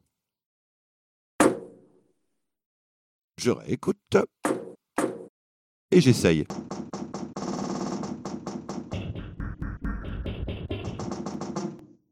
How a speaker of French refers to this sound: tapez sur le côté de votre machine à laver pour avoir un son de basse.